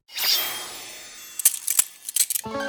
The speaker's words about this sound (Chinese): 手铐结结实实地铐在了土拨鼠的手上。